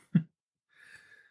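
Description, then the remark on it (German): A single quiet sneeze: a short, sharp burst followed by a breathy, hissing release lasting about half a second, with no one talking. “Gesundheit.”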